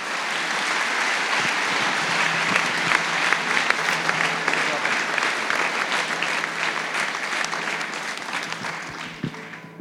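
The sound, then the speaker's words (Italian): An audience applauds God steadily for about ten seconds, a dense, sustained wash of many hands clapping at an even loudness that tapers slightly toward the end. “Facciamo un applauso al nostro Dio.”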